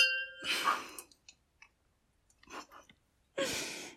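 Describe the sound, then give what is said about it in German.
A brief ringing clink of glasses in a toast fades out, followed by soft slurping sips, small swallows and a breathy exhale, all fairly quiet with no talking. “Aber vorher einmal trinken, oder? Vorher einmal trinken. Prost.”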